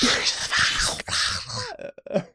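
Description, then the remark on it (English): A voice imitates hissing snake speech: a run of breathy, sibilant hisses and clicks, trailing into a few short throaty grunts and voiced murmurs. “I think Parseltongue is like someone eating chips without letting their teeth touch.”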